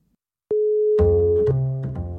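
A steady telephone ringback tone of an outgoing call comes through a phone line, clear and fairly loud, then a voice starts talking over it just before the tone cuts off.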